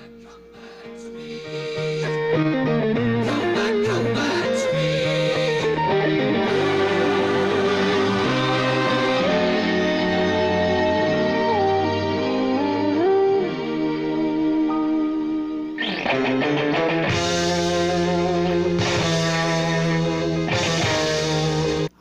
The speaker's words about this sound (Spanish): hay guitarras, ¿ah? Bueno, eso no me lo esperaba. Esa parte es gozante, es rimbombante, fuerte. Está bien, ¿ah?